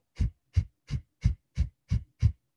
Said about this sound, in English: so I'm not sure if you can hear that, but I'm exhaling out forcefully through my nose. And it's almost like I'm kind of crunching in my belly.